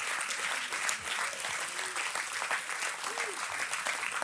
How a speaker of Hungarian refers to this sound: Ámen! Ámen! Egy nagy, nagy tapsot adjunk az Úrnak!